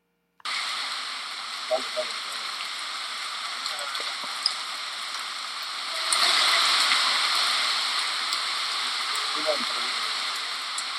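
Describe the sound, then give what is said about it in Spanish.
Steady, dense rain hisses continuously from start to finish at half past three in the morning in the Callejón del Aguacate alley, swelling a little louder partway through, with a few faint, indistinct sounds mixed into the downpour. “Son las tres y media de la mañana, estamos en el clásico callejón del aguacate, está cayendo una lluvia bastante peculiar.”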